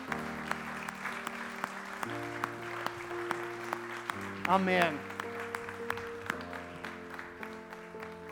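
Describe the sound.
Congregation applause given to the Lord for new life after a prayer, a steady patter of many hands clapping for several seconds over sustained keyboard chords that shift in pitch, with one voice briefly calling out partway through.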